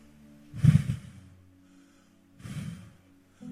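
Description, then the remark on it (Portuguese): Two breathy bursts of air blown from the mouth to imitate wind, each a soft whooshing puff lasting about half a second, separated by a short pause, with no talking. “Olha o vento.”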